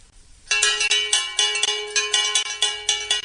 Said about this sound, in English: The traditional way to open an English farmers market has always been the ringing of the bell.